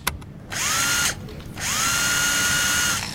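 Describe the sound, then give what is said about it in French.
A power drill whirs in two loud bursts while a shelf is being put up, each rising in pitch as the motor spins up and holding a steady high whine, with a short pause between them. “À la perceuse, carrément.”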